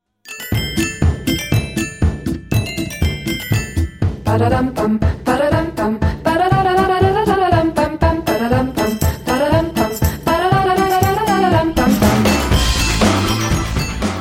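A pop song plays loudly and continuously, opening with bright chiming keyboard chords over a steady beat before a smooth, sustained sung melody enters with full band backing.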